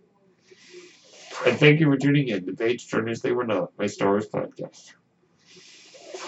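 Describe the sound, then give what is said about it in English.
A soft, airy hiss from the speaker's breathing ventilator rises before and after a stretch of talking, a steady rush of air. “That noise you are hearing is my ventilator.”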